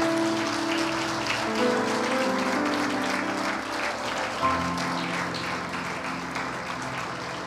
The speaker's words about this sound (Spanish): Puede darle una ofrenda de palmas al Señor.